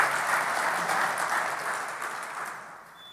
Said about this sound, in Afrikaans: dankie orkes. Geef hulle lekker hande klap toe. Applaus.